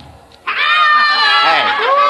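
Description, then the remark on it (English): A rowdy crowd of drunken revelers blocking a car's way bursts in loudly after a brief quiet moment, many overlapping voices shouting, whooping and laughing in a sustained, boisterous din. “A bunch of revelers, drunk and out for bear, opened the back door of the car”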